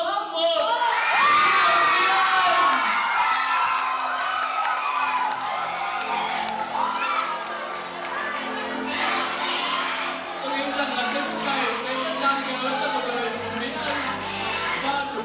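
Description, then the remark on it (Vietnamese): A large crowd erupts in loud, sustained cheering and shouting as the winner of a 2012 journalism student beauty and talent pageant is announced and crowned. High excited voices and whoops blend into a continuous roar that lasts throughout. “như cái tiếng hò reo đó đúng cái sự xúc động và xung quanh kiểu ù ù ấy mình vỡ òa và mình cảm thấy là tất cả những cái cố gắng của mình đã được đền đáp”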